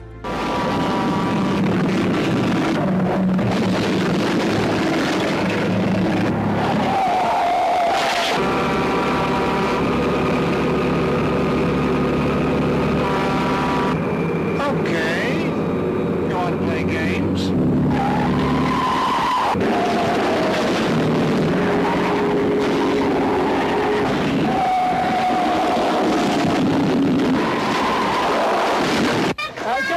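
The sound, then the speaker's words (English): A loud, continuous stretch of roaring truck engines and screeching tire skids from a movie scene, with trucks revving and sliding in a chaotic chase, and occasional voices mixed into the din. “But uh, gee, I, I, hope it doesn't turn out like those movies in the 70s and 80s, if you recall, where the, the trucks were trying to kill people.”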